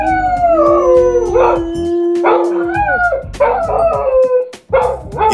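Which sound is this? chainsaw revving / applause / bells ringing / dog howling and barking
dog howling and barking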